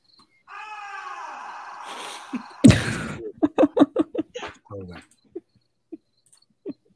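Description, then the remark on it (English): A long, wavering howl rises and holds for about two seconds before breaking off abruptly, followed by a burst of rhythmic, laughter-like pulses and a few soft scattered clicks. “i've called the shirt ghostly howl and she's a wolf because of this clip”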